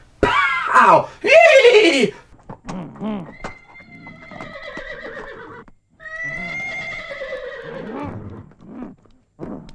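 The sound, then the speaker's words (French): A person imitates a horse whinny from a film: two loud, descending shrill bursts, then longer wavering, quavering neighs drawn out over several seconds, with short breathy gaps between. “Il y a un truc de cheval, aussi, à un moment donné, qui pendant à peu près 10 minutes fait...”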